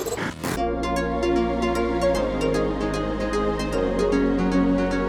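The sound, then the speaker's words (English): A harp plays a flowing run of plucked notes over sustained low tones, the bass shifting a couple of times. The music is steady and moderately loud, with no voices. “The sound of a harp”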